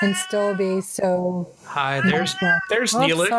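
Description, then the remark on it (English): A male cat named Neelix meows several times, its drawn-out, wavering cries mixing with a person talking in between and over the meows. “he likes to talk, so he may be meowing at me.”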